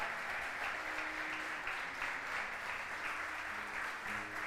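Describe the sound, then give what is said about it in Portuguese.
An audience at a Christian service applauds loudly in the name of Jesus, a dense wash of many hands clapping at an even level throughout, with faint voices murmuring underneath. “Aplauda bem forte a ele em nome de Jesus.”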